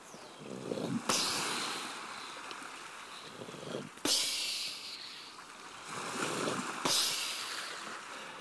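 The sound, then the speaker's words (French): Ocean waves crash against rocks three times at a steady interval, each loud, sudden burst breaking into a hissing wash that fades out before the next one hits, with no voices. “Elle entend le bruit des vagues qui se fracassent contre les rochers.”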